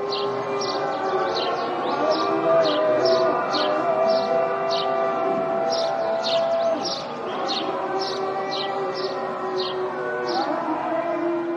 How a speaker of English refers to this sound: Muezzin voices deliver the adhan five times a day, over megaphones installed on the mosque's minarets. Open your ears and immerse in the calls for prayer that I can hear from my roof.